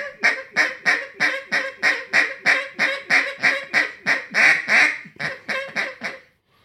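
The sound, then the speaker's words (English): A duck call blown in a steady hiccup cadence to bring ducks all the way to the hole, around seventeen short, even, raspy quacks in quick succession, loud, with no talking. “You know, hiccup them all the way to the hole. Hic, hic, hic, hic, hic, hic, hic.”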